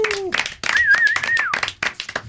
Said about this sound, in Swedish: Applåd för honom också.